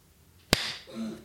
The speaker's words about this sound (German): ist so ein bisschen das Ding, dass wir äh, uns in dem Fall merken wenn wir klatschen, etwa von der Zeit.